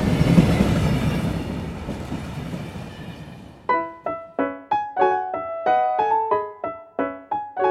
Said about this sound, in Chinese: 二零一五年三十一号下午嘛，就坐到了前往北京的火车上。